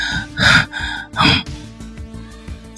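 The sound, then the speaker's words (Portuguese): A voice imitates deep, shaky breathing: two loud, heavy breaths, each a ragged gasping inhale and exhale, followed by quieter, fading breath noise. “E respirando fundo assim.”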